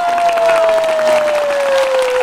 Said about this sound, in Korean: 박수 한번 주세요 우리 제작진님.